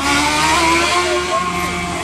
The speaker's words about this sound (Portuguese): Olha a moto!